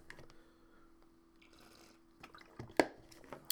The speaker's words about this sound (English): Excuse me, I'm getting a little drink of water here